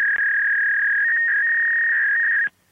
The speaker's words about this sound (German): Ich kenne es, weil ich bin jetzt mittlerweile ein alter Mann. Das Geräusch vom Faxgerät in den 80er Jahren ist es in die Büros gekommen und dort zum Teil immer noch im Einsatz, zum Beispiel beim Bundesamt für Gesundheit